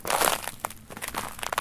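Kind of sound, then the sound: nature, footsteps crunching in snow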